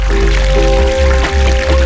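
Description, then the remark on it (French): Water of the Dourbie river rushing right beside the microphone, recorded at the riverbank, a loud, continuous gurgling flow with small splashes and bubbling churn, no voices present. “C'est celle que j'ai enregistrée au bord de la Dourbie. Et que vous en entendez maintenant couler le long de mon micro.”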